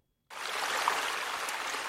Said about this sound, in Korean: 어우야 어디선가 들려오는 거대한 폭포수 소리